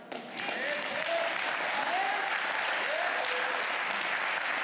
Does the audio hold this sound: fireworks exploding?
no